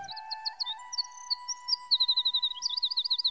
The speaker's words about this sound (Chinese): 夜莺为橡树唱了一首歌，它的歌声就像银罐子里沸腾的水声一样，那么清脆好听。